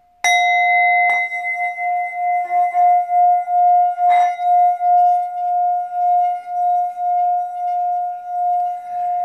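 A singing bowl rings with a strong, steady tone and a few higher overtones, sustained for several seconds with a slow pulsing wobble, after a couple of sharp strikes at the start.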